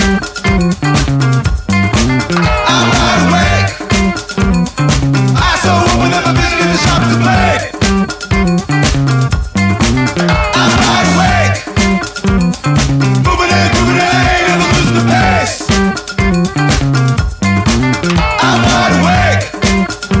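A loud rock song plays for the whole stretch, with a steady driving drum beat, distorted guitars and a sung vocal line riding on top of the full band.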